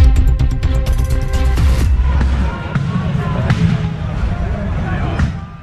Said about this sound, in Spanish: Así se escuchaba la tercera noche de manifestaciones en pleno centro de Barcelona que causó fuertes enfrentamientos con la policía.